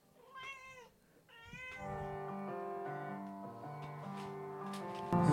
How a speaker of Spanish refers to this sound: La gata va a cantar.